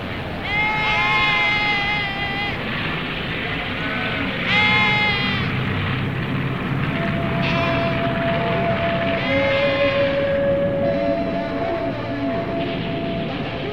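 Several goats bleat in wavering, harmonic-rich calls, some overlapping, over a steady background of ambient noise; one sustained tone runs through the middle section.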